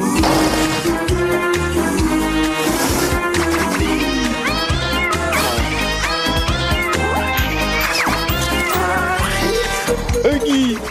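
A bouncy theme tune of a French animated cartoon series plays loud and continuous, with a steady thumping beat, bright melodic lines and swooping vocal-like slides filling the whole stretch.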